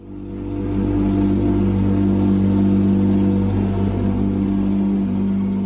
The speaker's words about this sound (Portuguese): Tá aí, ó, o ronco do Porsche para mim é uma música, aliás, uma sinfonia muito bonita, porque o barulho realmente destaca.